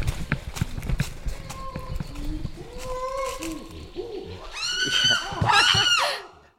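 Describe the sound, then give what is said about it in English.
Rapid, hollow thumps of a chimpanzee drumming come first, then a pant hoot rises from low breathy hoots into loud, shrill screams that peak near the end before cutting off. “Yeah, yeah, I can almost see a chimp drumming.”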